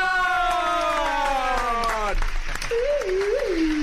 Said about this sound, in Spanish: Entonces, amigas, amigos, un aplauso para